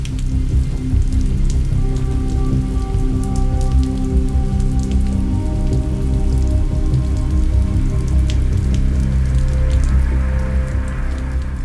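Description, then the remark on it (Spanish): Steady rain patters densely on a hard surface, fairly loud, with scattered sharper drops and a low continuous hum underneath; no one speaks. “Empezaba a llover cuando detuvo el automóvil.”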